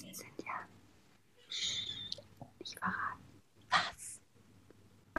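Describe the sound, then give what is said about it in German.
Soft, breathy whispering, a few short hushed phrases with pauses between them, no voiced speech, quiet overall with faint background hum. “Ich habe geflüstert.”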